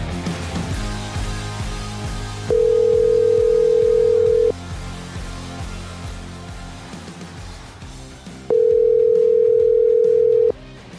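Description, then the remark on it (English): A phone ringback tone sounds twice as a call is placed, each a steady two-second electronic buzz with a long pause between, loud and clear over low background music. “Let's hit that dial button.”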